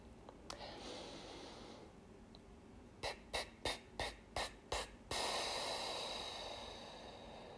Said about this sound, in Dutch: Je hoort ook dat dit een veel intensievere ademhaling is, dus je bent echt actief aan het uitblazen. Dit kost ook energie, ehm, dus begin hier niet te snel mee met de zeven puffjes, maar Probeer te blijven bij het langzame puffen.